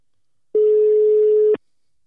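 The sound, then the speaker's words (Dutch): A single one-second burst of a steady, clear telephone ringing tone as a phone call is placed, heard alone and fairly loud against silence, like the ringback on a call waiting to be answered. “nee hoor, we gaan hem gewoon bellen.”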